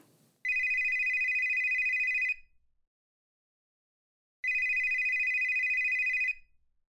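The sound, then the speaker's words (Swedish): A telephone rings twice, each long electronic trill lasting about two seconds with a pause between, loud with no one speaking. “Telefonen ringer.”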